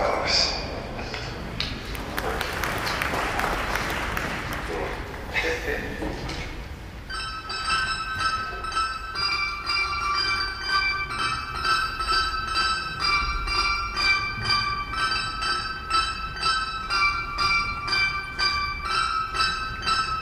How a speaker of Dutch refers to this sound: U hoorde het dergelijk eiersnijderharpconcert werd niet gewaardeerd.